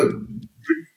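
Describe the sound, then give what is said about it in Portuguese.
A sudden sneeze bursts out loudly and fades over half a second, then a shorter, softer vocal noise follows after a brief pause. “Saúde. Saúde. Por que, obrigado”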